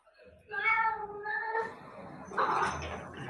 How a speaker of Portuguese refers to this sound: Tá, eu tenho um gato aqui fazendo barulho para variar, né?